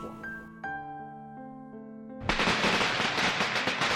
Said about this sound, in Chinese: 远处忽然传来鞭炮的脆响，我顿了顿，继续看下去。